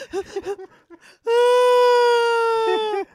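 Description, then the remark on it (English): A voice imitates someone crying hysterically on a phone call: a few short choked sobs, then one long, loud, high wail held steady for nearly two seconds before breaking off. “You were hysterical crying like this.”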